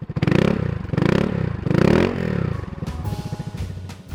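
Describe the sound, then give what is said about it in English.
A small motor scooter engine revs loudly, surging up and down about three times before settling into a rattling, uneven idle. “Despite the danger, the notion of renting scooters came up again and again.”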